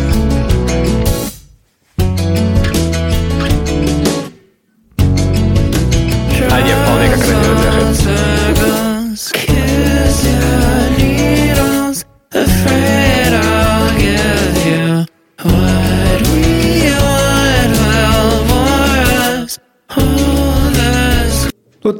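A loud, guitar-driven indie rock song plays with dense full-band sound, cut into several short excerpts separated by abrupt brief silences.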